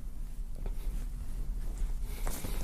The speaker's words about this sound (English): That's the sound of a red flag waving. I'm, yeah, I'm waving a red flag into the mic so they can hear it. Y'all can hear the wind from the red, red flag.